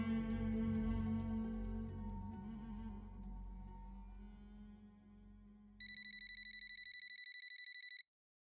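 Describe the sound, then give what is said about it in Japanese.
A rich musical passage fades out, then Kuroda's mobile phone rings with a fast, trilling electronic tone, steady and fairly loud for about two seconds before cutting off abruptly. No one speaks. “黒田の携帯が鳴った画面に表示されるそれを見て彼は席を外した。”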